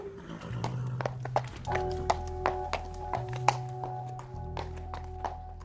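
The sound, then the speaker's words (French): Quick, uneven hoofbeats of a galloping horse thud along at moderate loudness, layered over a steady low humming drone with faint sustained tones; no one speaks. “c'est cette allure qu'on utilise dans mon activité, dans le sport, parce qu'on va sauter les parcours au galop.”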